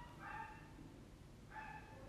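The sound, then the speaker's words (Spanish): A dog barks twice, about a second apart, each bark short and fairly faint, with no talking and a low steady background hum. “ese perro nos va, a cagar, el audio todo entero.”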